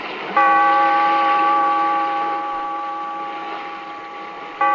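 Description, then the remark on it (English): A large bell tolls at the close of The Weird Circle, its loud, resonant ring hanging in the air and fading slowly for several seconds before it is struck again at the very end. “Bellkeeper, toll the bell.”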